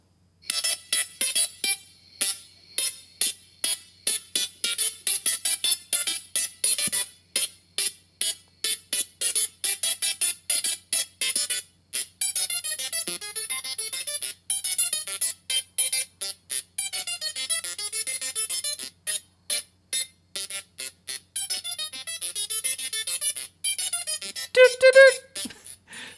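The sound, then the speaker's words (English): A zeusaphone, a singing Tesla coil creating plasma, buzzes out a recognizable song in harsh, electric tones, with loud bursts of varying length forming a rhythmic melody and rising to a brighter, louder passage near the end. “So this is the zeusaphone, and uh, I think you'll recognize the song.”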